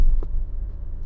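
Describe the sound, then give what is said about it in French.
Steady low rumble of road and engine noise from inside a moving car, fairly loud and constant, with one brief soft thump near the start and no talking. “Là je suis en voiture, c'est pour faire un essai un petit peu pour voir euh, ce que ça donne en voiture.”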